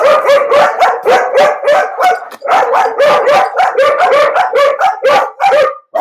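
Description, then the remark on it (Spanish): A female dog outside in a garden barks loudly in a rapid, nearly continuous volley of sharp, high yappy barks and yips lasting several seconds, with no one talking. “mi perrita la que la peleadora está afuera, en el jardín, y los otros están acá adentro conmigo.”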